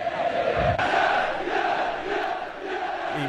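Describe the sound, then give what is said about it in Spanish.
A large crowd of Racing football fans roars and chants in unison, a dense, sustained wall of voices with rhythmic swells and a low thump early on, loud throughout. “Y en esto, bueno, estos últimos segundos donde uno estuvo ahí, estuvo gritando, escucha la hinchada y, saca pecho”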